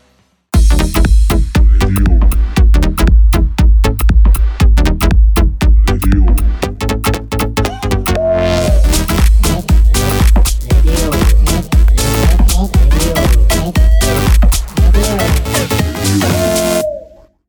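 A recorded song plays loudly and continuously, with a steady, punchy drum beat driving a full band arrangement. The music starts abruptly after a split second of silence and cuts off at the end.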